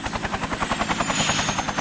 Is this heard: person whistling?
no